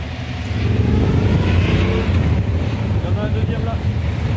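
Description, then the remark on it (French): Police motorcycles of the BRAV-M unit, accompanied by firefighters' rapid-intervention motorcycles, rumble past with a steady, loud engine drone, heavy wind buffeting the microphone throughout and a brief rising whine near the end. “Les policiers de la Brave M sont accompagnés des d'émirs, les motos d'intervention rapide des pompiers.”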